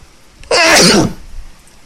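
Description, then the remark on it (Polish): A single loud sneeze bursts out, sharp and breathy, lasting about half a second before fading into quiet. “A skąd to kichanie?”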